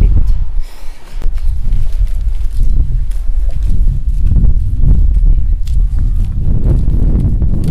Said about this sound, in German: Oh, ja, Wind.